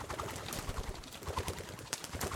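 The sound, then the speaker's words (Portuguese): A large parrot's wings flap rapidly against a bedroom window at midnight, a busy flutter of soft beating bursts that continues steadily for a couple of seconds with no talking. “Foi chegando, batendo com as asas na janela do quarto, e Maria abriu.”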